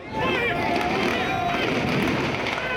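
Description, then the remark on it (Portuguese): A dense, chaotic crowd of looters invading a store roars continuously, with raised voices and shouting, scattered sharp bangs of a security guard firing shots into the air, and the scuffle of people running, all loud throughout. “Em meio à multidão, tiros e correria”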